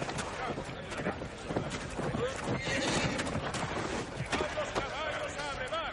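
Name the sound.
horse neighing and hooves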